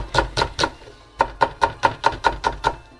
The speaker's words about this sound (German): So, jetzt schneide ich noch die Zwiebeln. Einfach vierteln die Zwiebel und dann in ganz dünne Scheiben. Ihr könnt die aber auch halbieren, dünne Scheiben, tut dann die Scheiben ein bisschen klein schneiden.